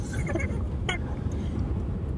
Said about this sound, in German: finden uns wieder im Auto. In letzter Zeit fahren wir sehr viel herum.